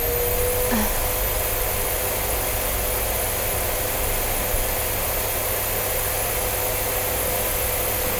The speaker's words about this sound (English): Hang on, I've got to vacuum this spot.